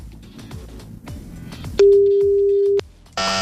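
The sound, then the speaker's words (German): A telephone ringback tone sounds while calling someone's mobile phone: one steady, loud beep lasting about a second, a short pause, then the next tone begins, with faint low background murmur before it. “Vielleicht schaut der oder die auch gerade das Handy an und sagt, das könnten, das könnten sie doch jetzt sein”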